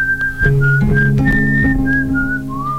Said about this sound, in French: Faire la vaisselle, en colloque, siffler machinalement.